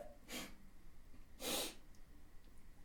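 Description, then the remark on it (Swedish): A woman gives two sharp, wet sniffles about a second apart, fairly loud against a quiet background, sniffling while crying; no one speaks. “Vad gråter du för?”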